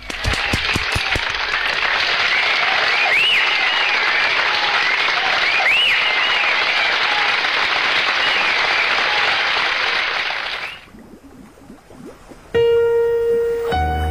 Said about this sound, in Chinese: 我先给点一掌声来鼓励一下。